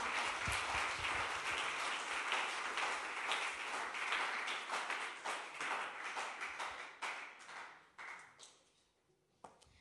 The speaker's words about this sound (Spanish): Bien, gracias, amén. Duro, por favor, amén. Un aplauso al Señor.